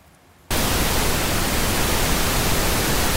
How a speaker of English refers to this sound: Okay, finally, pink noise. Let's listen to that.